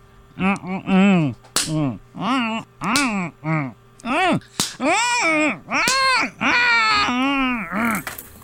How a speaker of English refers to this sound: Okay, now I'm going to do another standard part of the dental experience, and I'm going to slap you in the face repeatedly. Are you ready?